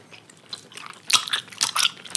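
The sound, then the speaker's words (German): Wet chewing and lip-smacking with crunchy bites while eating, a series of irregular mouth noises growing louder toward the end, no talking. “Oh, ich hasse Schmatzgeräusche.”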